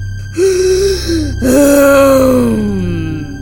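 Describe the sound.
A woman growls in a strange, strained voice: two loud, breathy vocal bursts, the second longer and slowly falling in pitch, with no words spoken.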